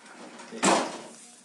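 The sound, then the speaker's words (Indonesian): A door at home swings or slides shut partway through so the air conditioner can be turned on, one fairly loud thump with a short rumbling tail, over a quiet background with no talking. “kalau mau di pasang AC aja deh lu tutup tapi pintunya”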